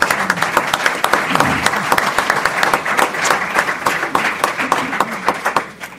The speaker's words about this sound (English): And so, thank you from the Shawnee Mission community for all your service and for all your work. So may we give our Board of Education a round of applause, please.